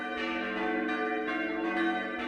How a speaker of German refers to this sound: Das Mittagsläuten aus Wall von Michael Mannhardt.